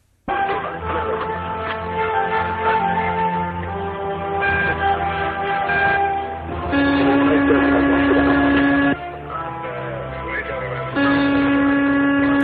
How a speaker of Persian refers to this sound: این هواپیماست این توی هواپیماست